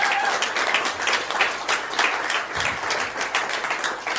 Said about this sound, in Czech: pojďme ho pozvat a přivítat a zatleskat a všechno.